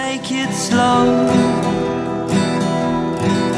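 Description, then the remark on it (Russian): An upbeat pop song intro by a very young band from Manchester plays loud, with bright layered synths and a steady driving beat, purely instrumental with no voices yet. “Все-таки давайте послушаем свою, … мы в любом случае можем вспомнить.”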